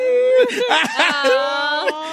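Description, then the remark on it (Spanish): A voice mock-cries in a wavering, whimpering wail, imitating the crying boy from a school meme, with rising and falling pitch over about two seconds, fairly loud. “Corriendo Estoy pero llorando como el niño del meme de la escuela”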